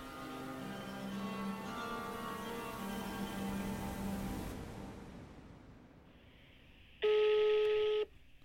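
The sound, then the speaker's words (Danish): Telephone tones as someone phones their mother: a steady, buzzy electronic tone hums for several seconds and fades, then after a short quiet gap a loud, sharp ring burst sounds once for about a second. No one speaks. “Jeg ringer til min mor, for det slår mig sådan lidt, hvad fanden tænkte hun egentlig på at få børn med sådan en som min far?”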